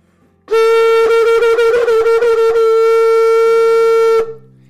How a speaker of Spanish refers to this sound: También está el culcul, que es el que hace el llamado de la ceremonia.